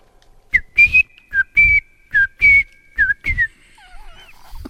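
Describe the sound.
A person whistles a chirpy tune imitating a little bird, in a run of about eight short, bright notes with quick upward flicks, then a few softer wavering whistles trail off at the end.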